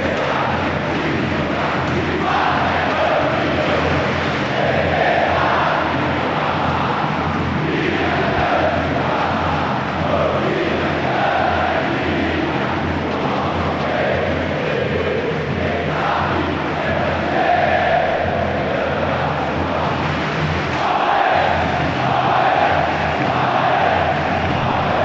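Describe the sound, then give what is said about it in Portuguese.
A large crowd of Palmeiras supporters chants and cheers in unison at the Palestra stadium as a Campeonato Paulista match begins, a dense, steady roar of many voices filling the whole stretch with rhythmic swells, loud and continuous with no single voice standing out. “Agora, agora o jogo vai ficar bom, já começando com a torcida cantando desse jeito.”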